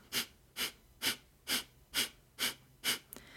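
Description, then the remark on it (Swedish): Seven sharp, forceful nasal exhalations in a steady rhythm, about two per second, fairly loud, with no talking: a breathing exercise demonstration in which the belly is filled with air and each breath is actively pressed out through the nose. “jag ska demonstrera, eh, det är väldigt svårt att bara lyssna på det, men se om du bara kan lägga fokus på magen, andas in, fyll upp magen och andas ut, pressa ut aktivt genom näsan.”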